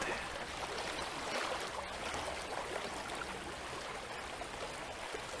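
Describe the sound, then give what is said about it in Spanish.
Flowing river water rushes and babbles steadily, a dense, continuous wash of sound at an even loudness throughout, with no voices present. “Acércate a la orilla y percibe agudamente el sonido del agua. Hazte consciente de este sonido que se hace cada vez más y más fuerte.”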